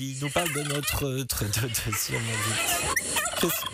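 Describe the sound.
A turkey's gobbling call, rapid warbling bursts that rise and fall several times, loud, with a person talking briefly alongside it.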